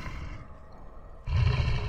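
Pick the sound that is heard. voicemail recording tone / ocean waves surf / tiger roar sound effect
tiger roar sound effect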